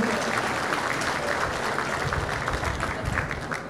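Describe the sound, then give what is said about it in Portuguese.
Steady applause from an audience for ITESP and the Secretaria de Agricultura e Abastecimento, at an event in the city of Euclides attended by the governor: a dense patter of many hands clapping at constant loudness for several seconds before easing slightly at the end, with no one speaking over it. “Uma salva de palmas ao ITESP e à Secretaria de Agricultura e Abastecimento.”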